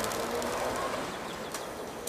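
Pigeons coo softly in low, murmuring tones against a steady outdoor background hiss, with a few faint flutters mixed in and no voices.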